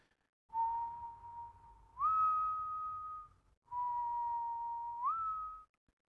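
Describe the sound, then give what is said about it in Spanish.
A flute plays two long held notes, each sliding up a step near its end, with a soft, low drum rumbling steadily underneath. No one speaks. “Y entonces el sonido del tambor y la flauta empiezan a mezclarse y probablemente también se escucha mejor, sin embargo el gran concierto que se prometía no suele ser un tambor y una flauta únicamente.”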